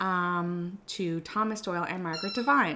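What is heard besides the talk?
dog vocalizing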